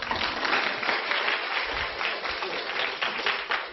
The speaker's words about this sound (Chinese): 此处难道不是当有掌声吗